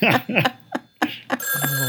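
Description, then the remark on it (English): A telephone bell starts ringing loudly and steadily in the second half, after a few bursts of voices and laughter, and keeps ringing to the end. “answer the phone.”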